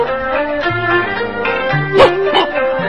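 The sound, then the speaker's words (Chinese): A human voice imitates a small dog, with drawn-out whiny tones breaking into a couple of sharp, higher-pitched yapping barks near the end, fairly loud throughout. “喂喂喂喂喂，这是小狗，在哪？”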